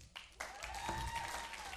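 An audience bursts into applause, a dense, steady wash of many hands clapping that swells after a brief start and holds at an even, fairly loud level, with faint whistles or tones threading through.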